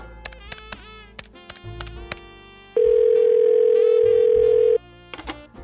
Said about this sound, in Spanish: se acerca a la mesilla y hace una llamada.